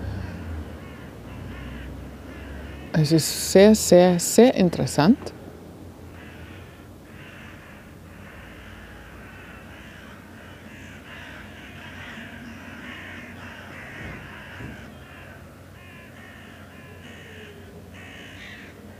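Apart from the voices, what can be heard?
birds calling outdoors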